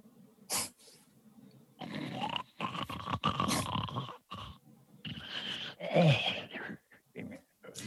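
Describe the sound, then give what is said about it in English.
Raspy, throaty snoring breaths rise and fall in uneven bursts, fairly loud, with wheezy, growl-like rattles and brief pauses between them; no talking. “the light sort of gradually turns to a sort of a soft night darkness around you and you hear snoring.”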